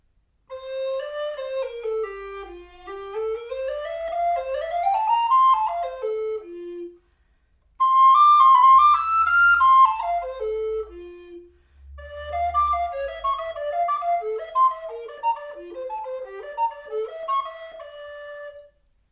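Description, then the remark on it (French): A solo flute, its headjoint cork set in the optimal position, plays three flowing melodic phrases, clear, with swooping runs and brief pauses between them and no voices. “Donc je vous fais entendre tout d'abord cette flûte avec la position du bouchon optimale.”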